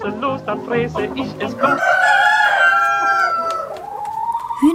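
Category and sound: bird, chickens clucking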